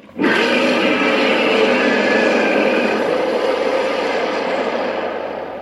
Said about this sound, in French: Alors furieuse, la bête ouvrit sa gueule sanguinolente. Max lui envoya ses projectiles traçant au fond de la gorge. Elle claqua les mâchoires et les rouvrit aussitôt pour un râle terrifiant.